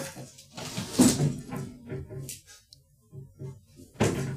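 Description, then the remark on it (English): A cabinet door in front of a bookshelf is opened: a soft wooden thunk and brief creaking, then quieter handling noises and another sharp knock near the end. Faint voices murmur in the background. “me open this one door that shows my bookshelf, and I can just tell you real quick.”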